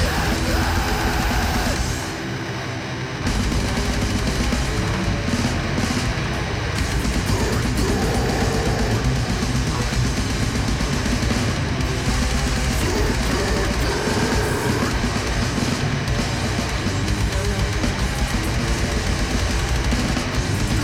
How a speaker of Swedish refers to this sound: Det är så jävla mycket reverb så det är svårt att höra detaljer, men när man hör att det finns detaljer att urskilja med lite